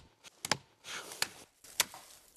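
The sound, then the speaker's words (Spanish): Several sharp, woody knocks of a forest marking hammer striking a maritime pine trunk, irregularly spaced, with brief rustling between blows outdoors; forestry agents are marking trees chosen for sale and felling. “Es la herramienta indispensable, el martillo forestal que permite martillar”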